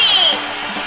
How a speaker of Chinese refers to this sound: 女士们、先生们，Ladies and Gentlemen，现在是大明脱口秀时间，掌声欢迎我们亲爱的